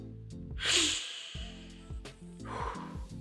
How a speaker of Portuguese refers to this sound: Essa respiração, a nova respiração o sol nascendo, é novo dia, velho.